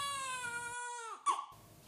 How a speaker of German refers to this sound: Das klang wie ein Baby. Da gab es gar keinen Zweifel.